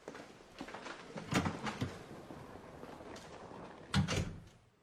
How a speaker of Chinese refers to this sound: 画面来到鹿野先生家的外面，田中推开门